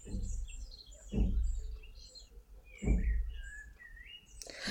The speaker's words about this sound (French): Alors, comme vous pouvez l'entendre, j'ai mis des chants d'oiseaux derrière euh, pour créer une petite ambiance entre nous.